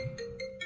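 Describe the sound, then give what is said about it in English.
A mobile phone ringtone chimes with a steady electronic tone and quick repeating bright pulses, fairly quiet and heard on its own with no talking. “sorry, that's my phone ringing.”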